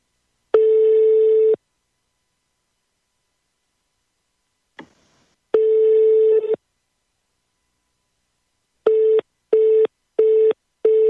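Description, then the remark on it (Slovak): A telephone ringing tone as a call is placed: two steady, mid-pitched one-second beeps several seconds apart, then a quick run of short, evenly spaced beeps like a busy signal. A faint click sounds between them, with no talking. “Voláme. Tono volá.”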